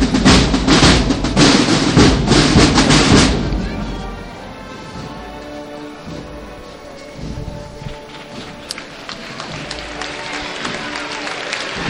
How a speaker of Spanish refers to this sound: Pues lo deja en que lo recibe con aplausos. Y bueno, y nuestro Padre Jesús ya está, ya está en el atrio de, de este su camarín, el convento de San José y el pueblo de Jaén que, es muy respetuoso